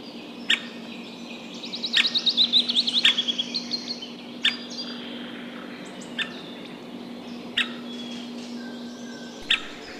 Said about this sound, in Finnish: Ja tässä on äänessä valkoselkätikka poikue ja emokin siinä pitää omaa ääntä aina välillä.